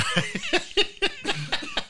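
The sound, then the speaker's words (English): A rapid series of harsh, choking coughs, about seven bursts in two seconds, loud, with a strained, sputtering quality from someone whose drinking water went down the wrong pipe. “if you're going to cough, you're out of this room.”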